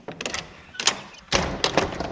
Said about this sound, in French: Vous nous ouvrez la, porte